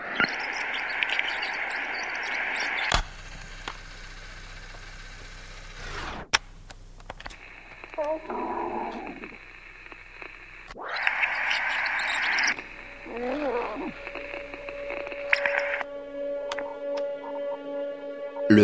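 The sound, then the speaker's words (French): Magnetic tape rewinding: bursts of high whirring hiss broken by sharp mechanical clicks, with warbling sweeps as the reels spin up and a steady motor hum near the end. No voices. “Un son qui implique la présence d'une bande magnétique et donc qui nous parle d'un autre temps, avant l'avènement du numérique.”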